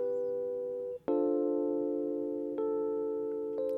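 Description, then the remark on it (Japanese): An electric piano plays on its own as the starting layer of a music track being built up, holding soft sustained chords that change every second or two, each new chord struck gently and left to ring, with no voices or other instruments. “まずこのピアノだけの音。”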